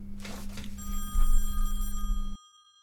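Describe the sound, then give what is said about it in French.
A telephone rings once in a sustained, bright electric trill lasting about two seconds, then cuts off abruptly, with a low steady hum underneath and no voices. “Monsieur le gouverneur, le président au téléphone.”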